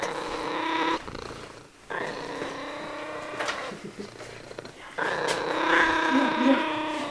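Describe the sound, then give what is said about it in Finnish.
A domestic cat purrs, a steady rumbling drone that swells and dips in long breaths, with a couple of brief pauses between phrases. “sitten kun on tämmöinen kissa, joka katsoo, että, kun, että siinä on koira ja ei haittaa”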